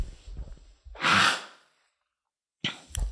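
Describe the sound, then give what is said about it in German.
Someone sniffles: a loud, airy snuffling inhale after some faint breathy noises, then a short silence and a shorter pair of sniffs. No one speaks. “Oh, sorry, ich muss mal eben kurz schniefen.”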